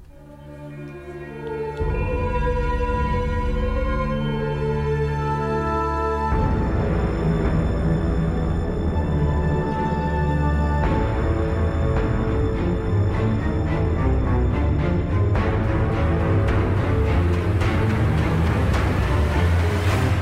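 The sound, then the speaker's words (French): Sweeping orchestral music composed as a pastiche of The Lord of the Rings film score plays loud and continuous with no voices, sustained harmonies swelling in new sections every few seconds over a deep, rumbling low end. “Donc là, on peut écouter du coup une des musiques”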